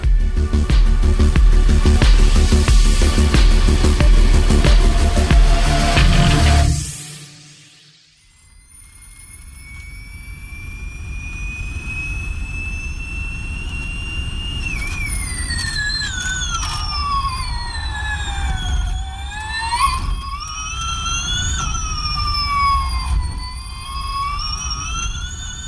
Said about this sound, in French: Le son que vous venez d'entendre est celui d'une Formule E en piste, la saison 6 du championnat de Formule E ayant débuté, tout comme la saison 5, à Riyad, la capitale de l'Arabie saoudite.